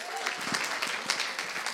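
An audience bursts into steady applause, many hands clapping together in a dense, continuous patter that fills the room at moderate volume.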